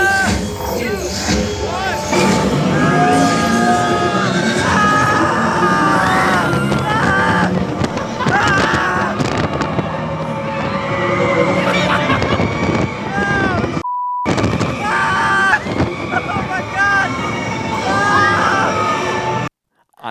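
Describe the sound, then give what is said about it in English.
Several riders scream and shriek continuously over a loud rush of wind as a roller coaster launches, with a brief cut near the end before the screaming resumes. “Do you know what your scream sounds like?”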